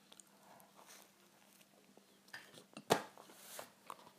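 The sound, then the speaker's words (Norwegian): Eating sounds: soft chewing and small clicks of cutlery against a plate, with one sharp clink standing out, all quiet and irregular with no talking. “Sorry, jeg spiser og herjer på.”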